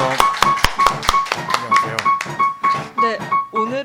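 Applause from a small group: a loose, uneven run of sharp, bright claps lasting a few seconds, with some voices sounding underneath.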